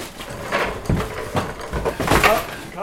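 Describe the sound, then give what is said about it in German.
Equipment (cable drums, tools, tent walls, plastic tubs for water, boxes of cable ties and tape) is carried from a basement into a large van with wide-open doors in a yard: a string of irregular thuds, knocks and wooden clatter as items are set down, with faint voices in the background. “Alles wandert aus dem Keller auf die Ladefläche.”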